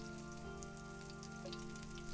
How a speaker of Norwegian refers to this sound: Regnet siler. Ettermiddagen legger seg tung og våt og kald over tidlig kveld.